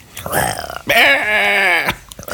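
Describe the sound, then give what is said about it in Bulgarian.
A person lets out one loud, drawn-out roaring wail, imitating a panther wounded in the heart. The cry lasts about a second and is framed by short, rough vocal sounds before and after. “Не знам дали чуваш как рева като ранена в сърцето пантера.”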